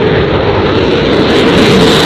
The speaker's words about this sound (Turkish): Savaş uçakları havalandı, füzeler atıldı. Hedef Kızıldeniz'de uluslararası deniz ticaretini tehdit eden Yemen'deki Husilerdi.